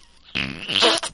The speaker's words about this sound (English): that was a fart.